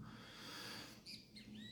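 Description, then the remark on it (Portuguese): A great kiskadee sings in the background in the morning, a few short whistled calls arriving near the end over a steady wash of outdoor noise, fairly clear. “Mas tem um bem né? dá para ouvir aqui o bem cantando ao fundo.”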